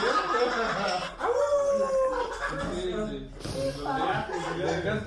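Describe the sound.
A person imitates a wolf howl, a long rising and falling vocal wail, while others laugh and chatter loudly around it.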